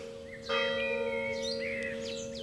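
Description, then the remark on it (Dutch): A church bell strikes once with a sudden clang and then rings on in a long, steady hum, while birds chirp and twitter in the background. “Die slaat de klok, hè?”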